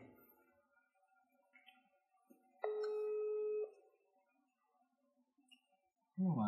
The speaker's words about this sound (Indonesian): ini berdering berdering eh masih hidup kan masih hidup tapi nggak diangkat sama dia